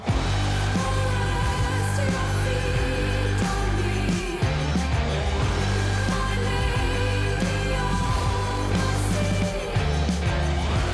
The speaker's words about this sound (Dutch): Dat was vandaag de nieuwe single ….